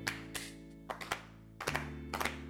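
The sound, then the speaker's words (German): A handful of sharp, dry hand claps made as a sync marker, in an uneven sequence, some single and some in quick pairs, over a steady low hum with no talking. “Okay, lass mich klatschen.”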